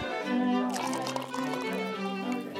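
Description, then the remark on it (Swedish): Champagne is poured into a glass by serving staff at a gathering of guests, in one continuous stream, the liquid's gurgle rising in pitch as the glass fills, with a light fizz underneath. Moderately loud. “Serveringspersonalen stryker omkring med baconlindade dadlar på ett fat och fyller generöst på med bubbel.”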